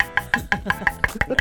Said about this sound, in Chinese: 很扎实。 对，这个就是实木的声音。